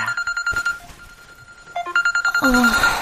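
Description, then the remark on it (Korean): An electronic alarm rings in rapid, evenly spaced high beeps, then shifts into a brighter, busier melodic chime near the end, loud and steady throughout. “아, 알람 소리였네.”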